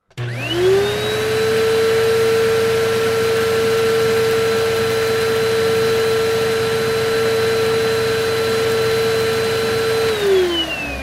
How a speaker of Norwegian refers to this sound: Ok, men kan jeg få støvsuge? Ja, du kan vel for så vidt det.